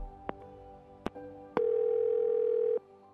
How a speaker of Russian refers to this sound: Телефон.